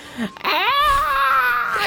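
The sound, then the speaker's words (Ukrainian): An adult voice mimics a whining, crying child who has just had a tablet taken away: a drawn-out, wavering nasal wail that rises and sags in pitch for over a second, fairly loud, after a short breathy lead-in. “Там не знаю, от знаєте, це от е, ті діти, яких в яких тільки е, забрали до планшетів, вони такі.”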